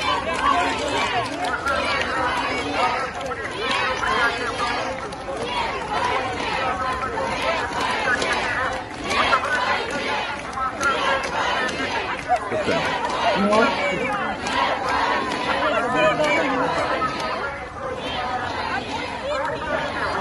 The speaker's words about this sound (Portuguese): E ao fundo as pessoas gritam não à guerra.